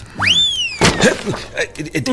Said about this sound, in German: da ist schon wieder ein Buch runtergefallen. Also wirklich, ich glaube, ich muss mir das morgen mal anschauen. Ja. Vielleicht steht das Regal etwas schief.